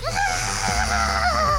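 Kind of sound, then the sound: sound effect, woman's scream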